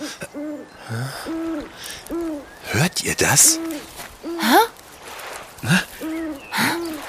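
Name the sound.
owl hooting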